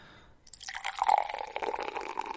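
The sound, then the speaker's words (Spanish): Beer pours into a glass with a steady, fizzy splashing rush that starts after a brief quiet moment and continues bubbling and frothing to the end, no talking over it. “Espérate, voy a tirar la cervecita.”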